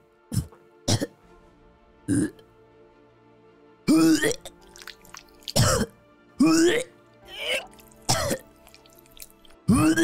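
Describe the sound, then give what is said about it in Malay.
A voice imitates retching: a run of harsh gagging heaves and throaty coughs in irregular bursts, loud, ending in wet, gurgling vomiting sounds. “Sabri membongkok lalu memuntahkan cecair hitam yang amat busuk dan hanyir.”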